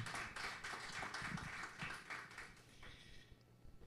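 The audience of the Nova Vida church in Vila Isabel claps to the Lord together in a dense, continuous burst of applause that holds steady for several seconds, then gradually thins and fades toward the end.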